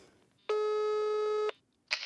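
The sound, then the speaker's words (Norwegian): A single steady telephone ringback tone of an outgoing call sounds for about a second, loud and clear, followed by a short pause and the start of another tone. “Skal vi se, nå skal jeg ringe henne.”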